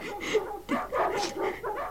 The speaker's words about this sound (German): Die Hunde sollen still sein.